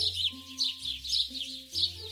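Birds chirp in quick, repeated bright bursts over a low steady hum with shifting tones underneath. No one speaks.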